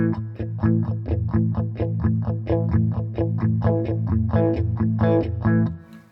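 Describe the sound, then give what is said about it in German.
An electric guitar played through a modulation pedal's distortion effect, set to a little distortion, plays steady, evenly spaced chord strums with a mild overdriven, slightly gritty tone. It is fairly loud for about six seconds, then trails off. No one speaks. “Also wenn du mal spielst, ich mache jetzt mal ein bisschen von wenig Verzerrung auf.”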